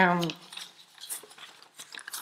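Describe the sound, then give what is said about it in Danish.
Papers are shuffled in soft, irregular rustling bursts for about two seconds, following a brief voiced sound at the very start. “der var lidt mange papirer her.”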